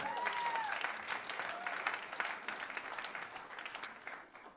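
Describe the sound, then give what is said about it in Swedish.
An audience breaks into steady applause for Jesus, a dense wash of many hands clapping for several seconds with a few sharper claps standing out, while faint vocal tones rise briefly at the start. “Uh, yes, ja, vi ger Jesus en applåd för det.”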